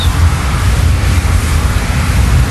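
An electric hand dryer in a bathroom blows with a loud, steady roar, a continuous rush of air heavy in low rumble that holds unbroken throughout, with no voices.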